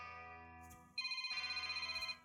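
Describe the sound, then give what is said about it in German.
A telephone ringtone rings out loud, an electronic tone sounding in quick repeated pulses after a steady buzzing hum, with no one speaking. “Oh, mein Telefon. Augenblick bitte.”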